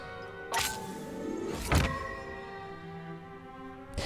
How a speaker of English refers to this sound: Okay, here, I can unlock a card right here. See, that's. Yes, that's kind of cool. Cool sound effect right there when you unlock the cards.